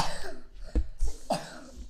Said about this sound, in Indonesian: dah batuknya